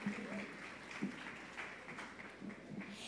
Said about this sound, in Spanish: Entonces, ¿por qué no lo recibimos con un aplauso?